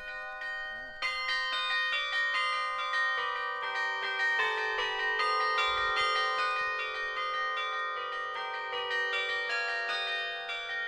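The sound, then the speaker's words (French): A female carillonneur plays a tune on a carillon overlooking the Luberon, the third piece of the morning, as tourists gather; its many bells are struck in steady succession and ring out with long, overlapping tones that fill the air loudly and continuously. “Elisabeth s'installe pour entamer le troisième morceau de la matinée.”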